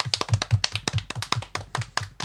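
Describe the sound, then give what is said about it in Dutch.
Applause from an audience welcoming a guest: a steady run of sharp hand claps with a fairly regular rhythm, continuing throughout with no talking over it. “Mag ik een warm applaus”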